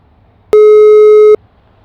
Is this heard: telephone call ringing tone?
yes